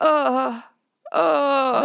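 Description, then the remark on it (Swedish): A voice imitates the moaning of a sick man lying down with aches all over his body: two drawn-out, wavering groans, fairly loud, separated by a brief pause with a small catch of breath. “Alltså, jag vet inte om han har feber men han har ont i hela kroppen och han ligger typ och låter så här.”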